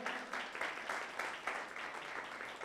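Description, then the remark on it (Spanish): A crowd applauds steadily, a dense wash of many hands clapping at once with a few louder bursts standing out, sustained throughout at a moderate level with no talking, giving applause to the Lord. “Un aplauso para, para el Señor.”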